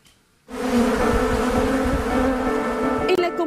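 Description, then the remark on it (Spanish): A dense swarm of thousands of honeybees covering a young farmer's body buzzes loudly and steadily in El Ceibo, eastern Dominican Republic, starting abruptly after a brief quiet moment and holding a constant droning hum. “comunidad de El Ceibo en el este de República Dominicana, un joven campesino sorprendió a todos. Era Juan Elías Peralta, de 21 años, quien andaba con miles de abejas pegadas a su cuerpo.”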